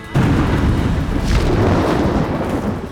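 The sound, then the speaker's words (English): A loud crash of thunder bursts in suddenly and rolls on as a heavy, sustained rumble with deep low-end roar, with no voices present. “With the deafening crash of thunder, it took off.”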